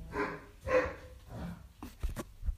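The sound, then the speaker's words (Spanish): A dog barks and yips playfully in a series of short, uneven bursts, with some scuffling noises between them and no talking. “Eh, mi perro está jugando.”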